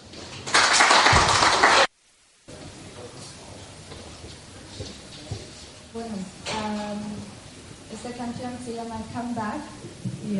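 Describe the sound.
A short, loud burst of audience applause, asking a singer to perform one of her songs, lasts about a second and a half and stops abruptly. After a brief silence, a voice talks over a soft, steady background.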